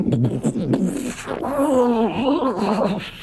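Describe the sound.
A voice imitates a tree creaking and groaning as it moves one of its unfrozen boughs, a drawn-out, wavering vocal moan with a rough, strained edge that rises and bends in pitch, fairly loud for a few seconds.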